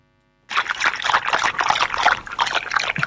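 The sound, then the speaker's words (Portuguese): Water trickles steadily into a bath as someone bathes in a bathroom in the countryside, a continuous bubbly splashing that starts abruptly after a brief silence and stays fairly loud, with no voices. “Estou a tomar banho”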